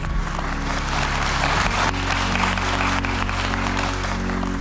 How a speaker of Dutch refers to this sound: Oké, hartelijk applaus.